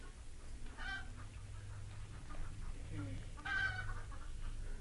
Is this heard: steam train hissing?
no